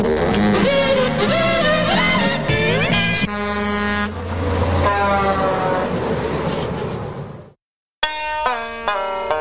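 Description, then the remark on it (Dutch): Loud, blaring truck air horn blasts, long sustained honks that shift in pitch, then a brief silence before a final burst of sharp honking. No one speaks. “they ought to them honks out there for sure.”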